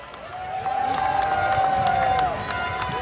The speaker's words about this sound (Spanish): Aplauso, aplauso, vamos.